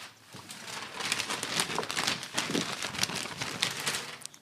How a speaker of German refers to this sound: Weißt du, was das war? Du hast das Skript zerknüllt, weil wir schon komplett über die, die Zeit sind.